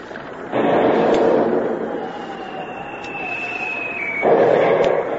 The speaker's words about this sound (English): the submarine comes to the surface, not more than a thousand yards away, and opened fire with its three inch deck gun, sending the first few shots screaming through the rigging to find the rain.